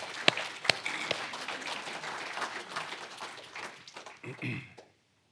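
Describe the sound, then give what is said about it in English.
A crowd applauds a man coming up to share his encounter, for about five seconds, a dense wash of claps with a few sharper individual claps standing out, then it fades out abruptly into silence. “we'll clap because he, he's a brave guy to come up.”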